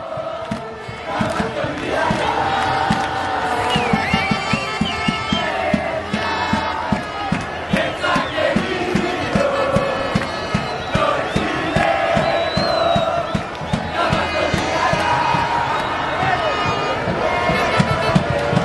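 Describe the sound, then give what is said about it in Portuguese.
A large crowd of Chilean football supporters sings a thank-you chant to Marcelo Bielsa together, loud and continuous, driven by steady rhythmic beats of clapping or drums that run through the whole stretch. “e a gente vai ouvir agora uma música de agradecimento da, da torcida chilena ao, ao Bielsa e essa revolução que ele fez no futebol chileno.”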